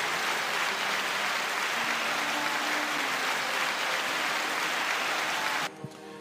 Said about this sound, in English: Round of applause again. Come on, guys. Round of applause.